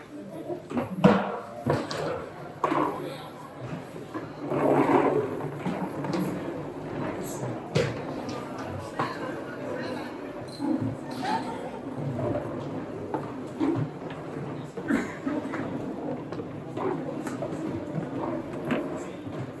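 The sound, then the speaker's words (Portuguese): Repeated scraping and thudding of chairs being dragged across a hard floor as everyone in a class brings their chair to sit close together, irregular and overlapping, over a steady murmur of many people talking. “Agora eu quero que todo mundo pegue a cadeira e traga e encoste aqui neles.”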